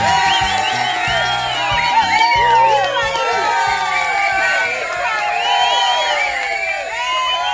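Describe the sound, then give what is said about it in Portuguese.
A loud crowd cheers nonstop, many voices whooping and shouting over each other in a dense, high-pitched roar that holds steady for the whole stretch, played as applause on a Rádio Joia broadcast. “Hum, aplausos ao Silva Júnior.”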